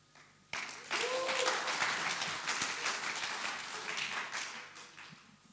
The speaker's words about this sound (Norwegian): Jeg syns du skal gi deg sjøl en applaus. altså. Vi har applaudert liksom, for en del grupper. Men liksom, applauder for deg selv.